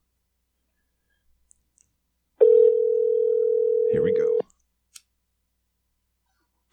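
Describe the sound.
A steady telephone dial tone hums loudly for about two seconds, with a man's voice briefly speaking over its end; a few faint clicks come before and after in otherwise quiet surroundings.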